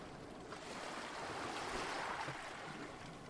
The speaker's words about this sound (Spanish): Ahora déjate llevar por ese cálido caso, con las siluetas de los rascacielos encendidas al fondo, en el silencio de la zona, escuchando solo el ritmo del agua.